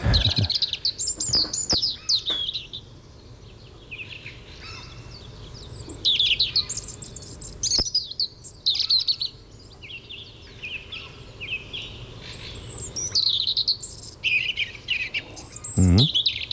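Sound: european robin singing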